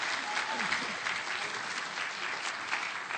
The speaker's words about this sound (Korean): 아멘, 아멘. 아, 좀, 이럴 땐 박수가 나와야죠.